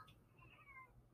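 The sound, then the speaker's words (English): A cat gives a single faint, drawn-out meow, quiet and in the background against a low background hum, before a louder sound cuts in right at the end. “Just so you could hear him in the background, or you just hear me meow twice at a cat that you know, I don't know.”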